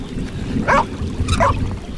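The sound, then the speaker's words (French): A dog named Sam barks twice at a river with very low water, about a second apart, each bark short and fairly loud, over a steady low rumble like an engine or moving water. “Et tu vas remonter des bottes à force d'aboyer.”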